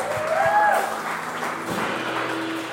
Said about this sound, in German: Come on, können wir all den Leuten einen großen Applaus geben, die sich entschieden haben.